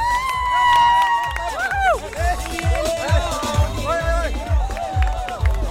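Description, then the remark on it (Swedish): A crowd of spectators on Avenyn cheers and shouts along the roadside as runners pass, with overlapping voices rising and falling over a steady, rhythmic thump of footsteps, fairly loud throughout. “Kom igen publiken då!”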